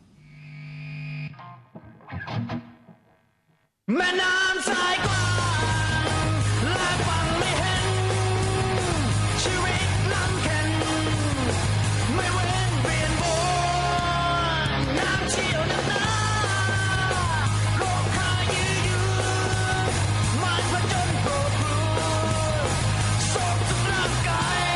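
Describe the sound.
After a few quiet seconds, a band's cover of a song crashes in loud and close, with heavily distorted guitars, a pounding low end and shouted vocals driving on without pause.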